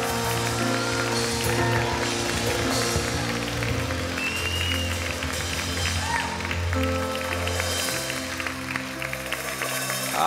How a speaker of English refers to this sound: Take 30 seconds, clap your hands to Jesus in this house.